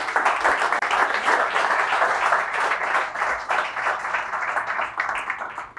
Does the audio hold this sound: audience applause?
yes